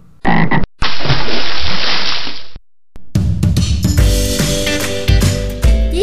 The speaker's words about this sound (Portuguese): pois as rãs continuam pulando, coachando, ora se esquentando no sol, ora se refrescando na água que fica no meio da vegetação.